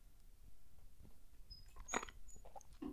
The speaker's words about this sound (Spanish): pausa para trago de agua